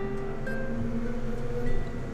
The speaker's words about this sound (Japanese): えー、バイクがうるさいですねハロウィンに行くんですかね皆さん